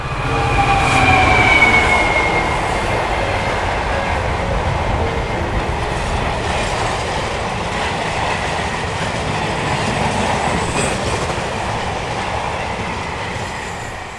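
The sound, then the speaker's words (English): A train rumbles past a railway crossing in the corner of a field at Fenham Hill on a foggy, chilly day: a loud steady roar of wheels on rails with a brief metallic squeal near the start, holding strong for the whole stretch before easing slightly at the end. “I am at uh, a railroad crossing.”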